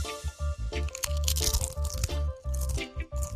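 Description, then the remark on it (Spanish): Repeated crisp crunches of someone biting into and chewing a churro, a steady series of loud, crackly bites with short pauses between them and no talking. “Qué rico este churro.”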